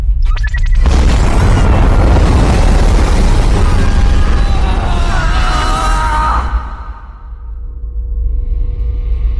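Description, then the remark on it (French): The main engines and boosters ignite for liftoff with a sudden deep, sustained roar that rumbles heavily across the low end, swelling into a loud, crackling thunder before easing slightly. “Allumage des moteurs principaux. Allumage des propulseurs. Allumage des propulseurs Ça veut dire qu'on décolle, ça”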